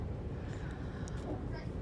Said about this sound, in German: So, nun sitzen wir wieder im Zug Richtung München